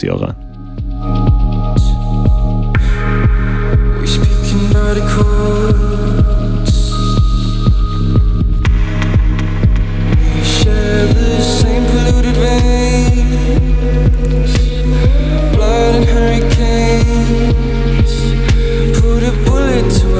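A trip-hop music track plays loud and close, with a steady, unhurried beat, deep heavy bass and layered synth textures running continuously throughout.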